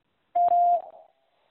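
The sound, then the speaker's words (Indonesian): A single steady electronic beep tone in a quiz, signalling when to answer, about half a second long and clear, with a short tail fading out before silence. “Silakan jawab setelah nada berbunyi.”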